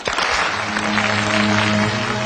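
Steady, dense clapping from a crowd fills the whole stretch, loud and continuous, with a low sustained tone humming underneath.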